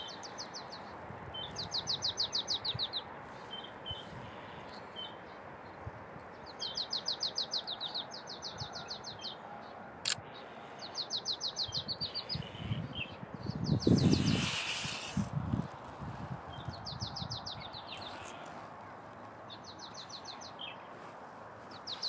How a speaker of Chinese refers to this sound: 好听吧？沼泽山雀的声音，我一直觉得是最好听的叫声之一。